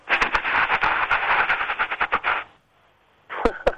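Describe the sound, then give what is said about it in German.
A voice imitates a rattlesnake's rattle with a fast, hissing, buzzy rattle of rapid clicks for about two and a half seconds, followed by a brief pause and a short burst of clicks. “Klapperschlange. Ja, es ist eine Schlange.”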